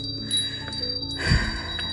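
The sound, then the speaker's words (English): A small glass and mother-of-pearl wind chime hanging in a bay window is knocked, giving a soft clatter followed by thin, lingering ringing tones that shimmer and slowly fade, with no voices. “i bought a little wind like this glass and mother of pearl wind chime and i put it in the uh, in my bay window and i've just knocked it i love the glass and the mother of pearl”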